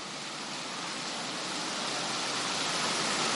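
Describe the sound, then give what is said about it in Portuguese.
Light rain sprinkles down in a steady, even hiss with a fine pattering texture, holding at a moderate level throughout with no voices over it. “Chuvinha respingando aí alguns.”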